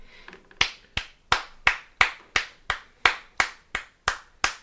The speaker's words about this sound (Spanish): Un aplauso. ¿Un aplauso? No, no, era un aplauso bien.